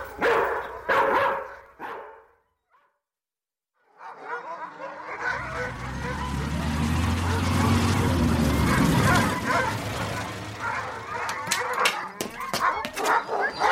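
dog barking loudly

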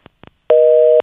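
telephone busy tone

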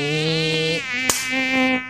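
mosquito buzzing

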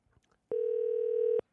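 telephone ringing tone

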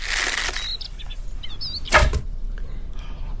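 arrow shot

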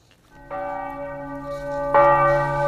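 church bell ringing

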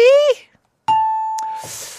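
ding-dong-dang correct answer chime

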